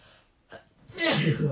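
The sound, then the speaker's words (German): A single sneeze, preceded by a short sharp inhale, then a loud, broad explosive burst lasting about half a second. “Gesundheit, Herr.”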